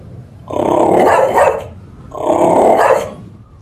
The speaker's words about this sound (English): At his feet, a dog growled ominously.